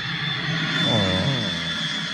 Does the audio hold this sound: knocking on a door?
no